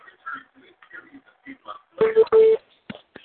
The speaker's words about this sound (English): Hold on I gotta take a call. Oh, but that was my phone.